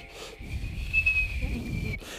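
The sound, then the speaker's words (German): A voice imitates the thin, steady high-pitched whistle of a draft under an apartment door that does not seal at the bottom, holding one wavering tone for about a second and a half over low background rumble. “Wenn die äh, Wohnungstür nicht unten sauber abschließt, pfeift es wie ich neuerdings feststellen muss.”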